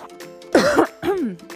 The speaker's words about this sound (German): Vorher räusper ich mich aber nochmal.